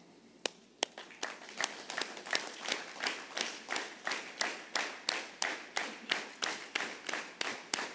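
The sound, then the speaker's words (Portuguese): A seated group claps steadily in unison, roughly three claps per second, sharp, sustained for several seconds with a faint murmur of room noise underneath. “Nós vamos sentados. Vamos bater palma.”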